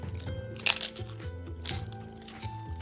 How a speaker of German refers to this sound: Und ihr hört uns schmatzen hier.